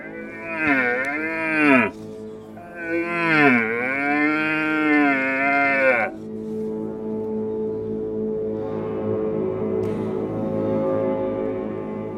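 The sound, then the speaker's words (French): A red deer stag bellows during the rut, the call called raire in French: two long, loud moaning roars that rise and fall in pitch, then a deep, rough, drawn-out groan, without any talking. “Mais après le son qui sort de sa voix, de sa gorge et de c'est le R A I R E.”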